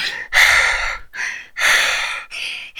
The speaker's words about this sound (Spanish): Eh, que hacer un, tuve que hacer una pausa aquí, en lo cual me di cuenta, escuchando la grabación, que respiro como un gordo. Así es. Respiro como gordo. En la respiración que escucha.